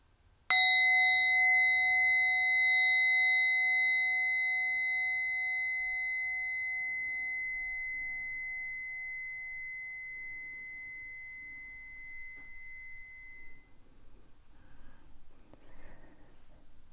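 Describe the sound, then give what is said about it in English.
A single meditation bell is struck once, its clear, shimmering tone ringing out and slowly fading over many seconds, with soft breathing faintly audible underneath as it dies away. “And finally, I invite you to take three deep, full breaths as I invite the bell.”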